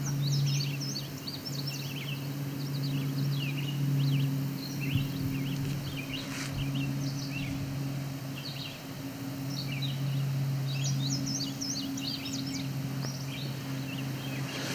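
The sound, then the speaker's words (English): A bunting sings repeated short phrases of high, thin notes stepping downward, with a steady low drone running underneath throughout. “So I don't know if there's a mnemonic for to go bunting, I find their descending tones something I can listen for.”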